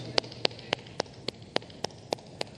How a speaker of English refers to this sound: Because a lot of us have lived our lives clapping for other people, and we don't even know what this sound feels like when it comes to us.